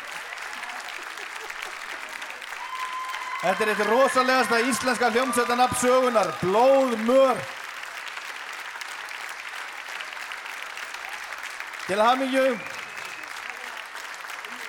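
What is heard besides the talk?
audience applause and cheering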